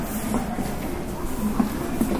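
A steady low hum fills the interior of a JR 221 series Yamatoji Rapid train bound for Nara, idling at a station before departure, with a faint droning tone and a few soft, muffled bumps and murmurs in the background.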